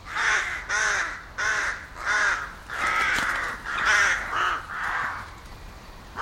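A series of harsh, rasping crow caws repeats in quick succession, about nine calls over six seconds, loud with brief gaps between them, and no one speaking.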